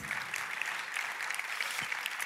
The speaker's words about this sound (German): So, vielen Dank, vielen Dank. Applaus.